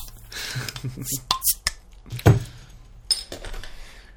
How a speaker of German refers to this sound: Ein Bier öffnen.